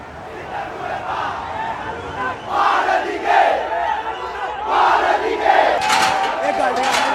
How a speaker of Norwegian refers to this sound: vi hører noe av dette her nå, Philip Lote. demonstrantene og demonstrasjonene er som du sier kommet helt ut av kontroll